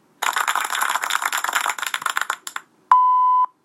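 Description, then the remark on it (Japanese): A rapid, clattering rattle runs for about two seconds and fades, then after a short gap comes a single loud, steady, mid-pitched censor bleep lasting about half a second. “このピーって何に使うんだあ言っちゃいけないことを言う時とか”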